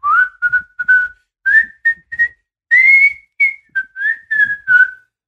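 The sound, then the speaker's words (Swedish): A man whistles a simple, singsong children's folk tune alone, a short run of clear phrased notes with brief pauses between them, fairly loud; the whistle the character Omar gives in the series when stalking someone. “Det är också lite så här skojig detalj att Omar ofta när han liksom stalkar någon eller gör någonting visslar.”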